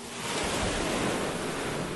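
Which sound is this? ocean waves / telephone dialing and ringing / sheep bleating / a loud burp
ocean waves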